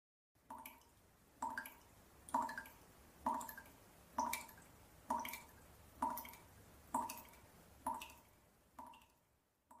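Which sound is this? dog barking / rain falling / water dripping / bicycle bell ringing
water dripping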